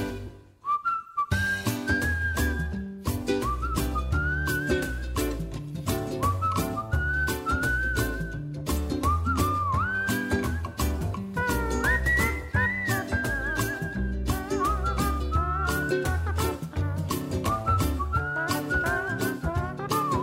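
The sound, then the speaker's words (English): A bright whistled melody carries a cheerful tune over steady backing music with drums and bass, the whistling loud and up front, wavering slightly as it glides between notes. “Everybody whistle.”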